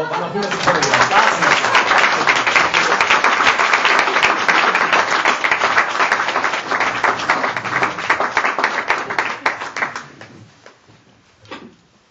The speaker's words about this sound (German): Und bitte euch also um einen Applaus für unsere beiden Gäste